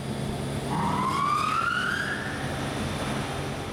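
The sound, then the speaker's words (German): Loud, continuous machine noise fills a furniture workshop where about 20 men work at their machines, sawing wood. A power saw's whining tone climbs in pitch as it cuts, then fades back into the steady workshop roar. No one speaks. “20 Mann äh, und ja nur Männer, die stehen da an ihren Maschinen oder vor ihren Holzschnitten und sägen, was das Zeug hält.”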